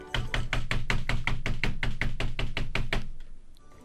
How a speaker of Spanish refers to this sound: El otro día me puse a tocar la puerta en China. Y fui caminando y toqué la puerta y dije...